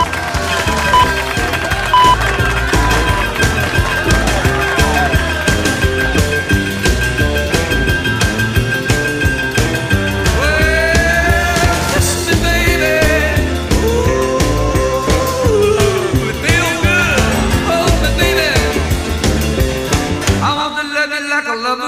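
A loud, driving rock and roll song recording played on a radio program, with a fast, steady beat and bright piano-like chords, playing continuously before cutting off abruptly near the end.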